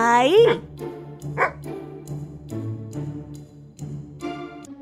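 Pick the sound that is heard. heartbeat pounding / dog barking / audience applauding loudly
dog barking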